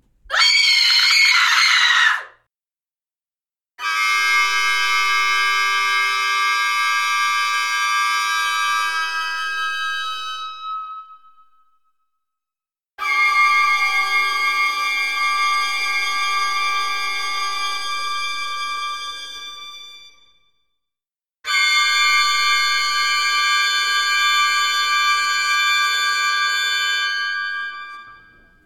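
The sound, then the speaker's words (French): Orchestral instruments alone, imitating a human scream, blend into shrill, scream-like sustained tones: a brief harsh burst, then three long, loud wails, each held several seconds and fading before a short silence. “c'est quand on essaye euh, de prendre des timbres complexes, comme par exemple des cris ou des cloches, et qu'en fait on essaye de reproduire le son d'un cri ou d'une cloche, mais uniquement avec des instruments de l'orchestre.”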